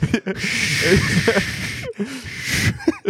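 Loud, hissing blizzard wind roars steadily outside a car, dropping out briefly twice before surging back, with faint muffled voices underneath.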